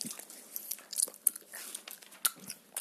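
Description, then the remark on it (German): Someone bites into a strawberry and chews it, producing a series of soft, wet, crunchy bursts and squelches at an uneven rhythm with no talking. “Jetzt nehme ich auch ein Erdbeeren.”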